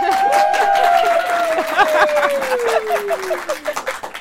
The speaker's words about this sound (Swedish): Vi spelar in live framför publik. Kan vi få höra publiken lite? En applåd!